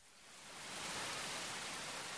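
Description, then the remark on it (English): Rain pattering steadily on leaves, a dense, even hiss that swells over the first second and then holds, fairly loud, with no voices. “MM shouted over the sound of rain hitting leaves”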